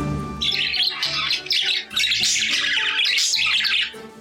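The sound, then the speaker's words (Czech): Budgerigars chatter and squawk continuously, with loud, harsh, scratchy calls tumbling over one another in rapid, irregular bursts and a brief dip before the racket resumes. “Andulka vlnkovaná je nadaným imitátorem lidské řeči”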